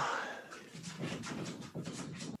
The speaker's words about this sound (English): what happened there? I think maybe the dog came in or something. Dog. It sounded like a dog at a door. if it wasn't a if it wasn't a dog, that that would have been, that would have been pretty worrying.